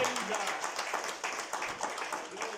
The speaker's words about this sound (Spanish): Denle un aplauso a Cristo Jesús en esta noche.